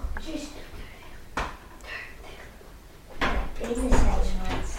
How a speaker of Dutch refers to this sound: Jongens, willen jullie even die deur dicht doen?